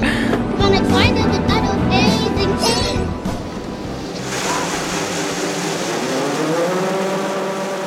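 A combine harvester's engine runs loud in a corn field, a steady heavy rumble with a broad mechanical roar, as the emptied combine moves slowly through the field to collect another load. Partway through, the tone shifts into a lower, smoother drone as it keeps going.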